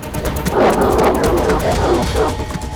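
A dog growls and snarls aggressively in a continuous, rough rumble for a few seconds, fairly loud, with no voices.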